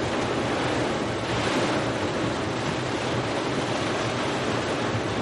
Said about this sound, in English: Um, I'm going to move the mic. I hope it doesn't make any horrible noise.